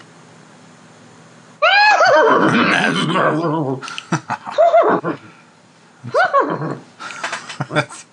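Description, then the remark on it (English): A person does a loud imitation of a horse whinny, a wavering, quivering neigh lasting a couple of seconds, followed by laughter and a second shorter whinny-like burst. “How good is your horse noise?”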